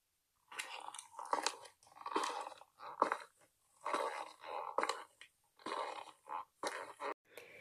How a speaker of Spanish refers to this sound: Al acabar todos volvimos al coche, con la cabeza mirando hacia el suelo. Solo se escuchaba el sonido de nuestras botas llenas de barro.